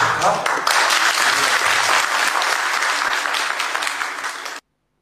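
A crowd claps steadily in a dense, continuous burst of applause lasting over four seconds, fading slightly toward the end before stopping abruptly into silence.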